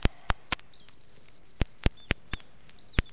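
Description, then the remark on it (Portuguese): Small birds chirp and tweet in a lively forest in the morning, with sharp repeated clicks or chips cutting through a steady high-pitched trill. No one speaks. “quando os passarinhos acordaram, encontraram Branca de Neve adormecida na floresta”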